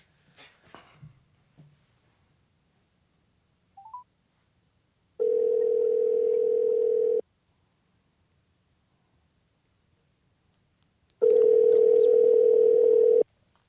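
An outgoing phone call rings twice: two steady, buzzing tones about two seconds each with a long silent gap between, clear, after a few faint clicks at the start.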